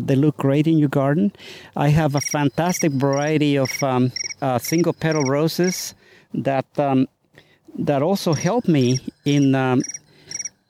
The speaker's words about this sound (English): I, I, like it that when your phone goes off, it's the sound of a bug. it's remind me of crickets.